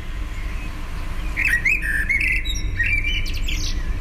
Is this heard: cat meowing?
no